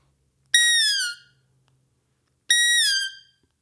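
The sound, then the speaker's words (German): A hunting call is blown twice by someone trying to produce the right sound on it, each note a loud reedy tone that starts high and slides downward before fading, with a pause of about a second between them and no talking. “Es ist, ist nämlich auch eine Kunst an sich, äh, das richtig zu äh, oder da richtig reinzupusten, um den richtigen Sound hinzubekommen.”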